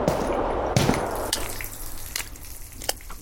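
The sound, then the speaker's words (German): Water drips steadily inside a flooded, futuristic-looking house where everything stands under water, with several distinct plinks and splashes at irregular intervals over a soft, continuous wash of trickling water. “Ui, hier steht ja alles unter Wasser, soweit ich sehe.”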